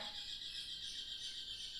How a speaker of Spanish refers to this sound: Gracias, pájaros.